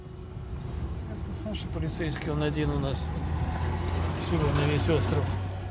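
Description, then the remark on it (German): A steady, low engine rumble of a car driving to Sekirnaya Gora on Solovki, with a voice talking over the drone throughout. “holt mich mit dem Auto ab. Wir fahren zu Sekirnaya Gora, dem sogenannten Axtberg auf Solowki.”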